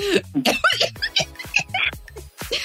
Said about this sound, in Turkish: Yayında öksüren de bir ben.